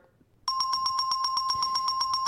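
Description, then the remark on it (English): A bell rings loudly and continuously after a brief quiet moment, with rapid, evenly spaced strikes producing a bright metallic clatter that persists for about two seconds with no talking. “Oh boy, ring that bell. New sponsor alert.”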